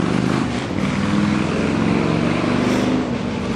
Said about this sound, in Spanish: qué potencia de moto. Ya va una cuadra de distancia y sigue sonando. Impresionante. Qué insoportable debe ser manejar esas motos y oír todo eso todo el tiempo.